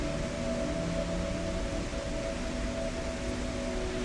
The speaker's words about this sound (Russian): Послушайте, как ветер шепчет вам.